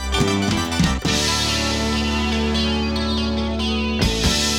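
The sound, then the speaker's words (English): A loud, distorted electric guitar riff plays with thick, sustained chords, and the sound jumps abruptly about a second in, as if spliced, before the riff carries on. No voices. “we get to the body of the song, starting with a synthesizer part that pans left to right, then the main guitar riff. And at the beginning of that riff, it sounds to me like there might be a tape edit there.”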